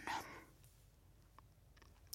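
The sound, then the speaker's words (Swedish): Wet chewing of gum: a brief smacking burst at the start, then quiet intermittent mouth clicks and smacks over a low background hum. “Tugga, tugga, tuggummi.”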